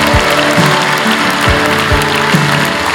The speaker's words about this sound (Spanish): Y todos decimos, ¿cuántos pueden levantar un aplauso al Señor? Dele más fuerte, gracias Señor.